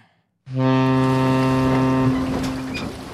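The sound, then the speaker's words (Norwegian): A single loud, low horn blast from a small fishing boat at sea starts abruptly after a brief silence, holding a steady, buzzy tone for about a second and a half before fading into rushing background noise. “Neimen, hva står sjarkes ute på blåa?”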